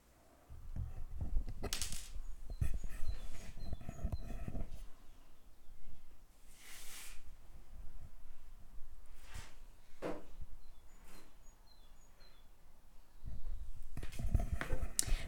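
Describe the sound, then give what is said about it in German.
Faint birds chirp in short high bursts outside in spring, heard through an open window, mixed with rustling and clattering handling noises. “Vielleicht habt ihr es gehört, dieses Vögelgezwitscher, das ist übelst schön.”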